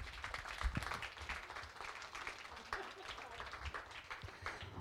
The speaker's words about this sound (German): Also vielen Dank, einen Applaus für die beiden.